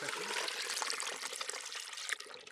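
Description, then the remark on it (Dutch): Water from a green bucket pours steadily into a large flower vase holding ice cubes and a cooling element, a continuous splashing gush with bright clinking and gurgling, fairly loud, lasting a couple of seconds with no one speaking. “Ja, er wordt hier dus nu een grote bloemenvaas met daarin ijsblokjes en een, nog een ijs, hoe heet het, zo'n koelelement cool element volgegooid met water uit de groene emmer.”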